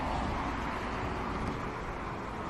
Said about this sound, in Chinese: 这时，从身后传来了机动车发动机的声音。